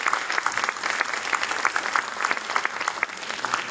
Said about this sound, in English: Ladies and gentlemen, let's give another a resounding applause to congratulate Supreme Master Ching Hai for the release of the Spanish edition of the book The Dogs in My Life.